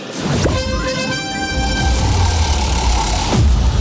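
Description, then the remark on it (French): A loud, blaring horn-like radio contest alert sounds for about three seconds, a sustained buzzy tone rising over a low rumble before cutting off abruptly. “Dès que vous entendez cette alerte, vous prenez votre téléphone et vous vous inscrivez, vous envoyez le mot roue par SMS”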